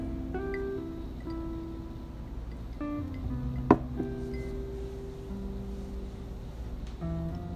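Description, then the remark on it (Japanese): A wine glass is set down on a table with one sharp knock midway through, heard against a quiet, steady background hum with faint tonal sounds and no talking. “最初これグラスをボンとか置くの多分めっちゃ響いてると思うなごめんなさいねこれ”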